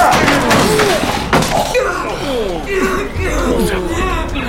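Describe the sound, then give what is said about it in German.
An attic door is forced open with a couple of heavy thuds and a loud bang near the start, followed by a jumble of excited voices talking over one another. “Wir müssen die Tür aufbrechen.”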